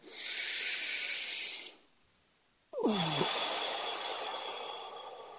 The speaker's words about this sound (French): Alors, on va faire une respiration ensemble.